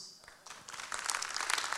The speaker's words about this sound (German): Und gib dir mal ganz kurz einen Applaus.